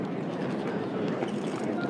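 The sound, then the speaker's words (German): A small airport shuttle train hums and rumbles steadily, a continuous, moderately loud interior noise with faint murmuring voices mixed into the background. “Und ich muss da jetzt in diesen kleinen äh, Zug steigen Komm, zum K Zug.”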